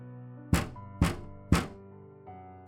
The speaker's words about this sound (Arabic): بعد حوالي دقيقة سمعنا صوت نقر على الشباك